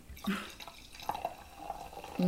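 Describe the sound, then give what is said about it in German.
Sparkling wine poured into a glass, a soft liquid trickle with small drip-like clicks and bubbly fizz, fairly quiet, with a brief low bump at the start and end. “Ich schenke euch mal noch ein bisschen Sekt.”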